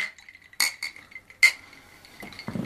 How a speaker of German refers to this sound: Ja, wir sind zurück mit einem neuen Getränk. Ja und stoßen nochmal an. Ja, Prost. Prost, ne?